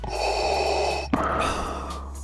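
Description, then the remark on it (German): A long, deep inhale followed by a slow, audible exhale, with a brief catch between the two breaths and no talking. “Ja, da müssen wir uns alle erstmal einigermaßen äh, beruhigen und vielleicht mal tief durchatmen.”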